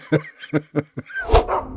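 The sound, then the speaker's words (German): A dog barks four times in quick, sharp yips, then lets out a louder, rougher bark with a whining edge, with no talking. “ich da quasi vers versucht habe, in den Klang des äh, zuvor gehörten Hundebellens äh, so ein bisschen reinzuarbeiten.”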